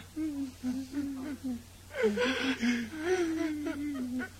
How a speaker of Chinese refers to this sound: 尊敬的七个小矮人，你们哭得这样悲伤，一定是遇到什么痛苦的事情吧？